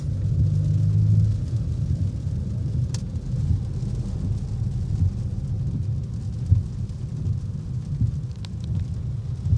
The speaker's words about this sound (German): Bis dahin fahre ich weiter im Stau im Ruhrgebiet vorbei an qualmenden Schornsteinen durch den Regen.